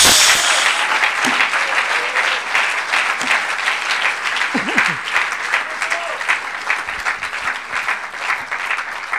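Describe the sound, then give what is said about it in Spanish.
An audience applauds the Lord loudly and steadily for about nine seconds, a dense wash of many hands clapping with a few faint voices calling out underneath. “Ahora sí démosle un aplauso al Señor.”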